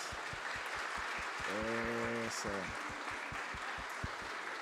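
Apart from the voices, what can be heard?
audience applause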